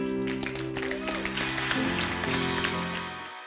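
A church audience claps in a dense, steady burst of applause, giving Jesus Christ a hand clap of praise over sustained musical chords. The whole sound holds at an even level before cutting off abruptly near the end.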